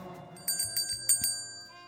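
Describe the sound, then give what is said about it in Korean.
A bright bell chimes several times in quick succession on the radio show Kiss the Radio, before the day's quiz, its clear ringing tones sustaining and fading out over about two seconds, with no voices. “종소리가 났네요.”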